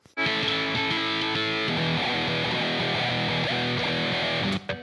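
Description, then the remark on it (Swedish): A pasta spoon bounces against electric guitar strings, producing a loud, distorted, buzzing drone with rapid uneven rattling hits for several seconds before stopping abruptly. “gör nu alltså att han slår en pastaslev mot gitarren och får det här studsande lätet.”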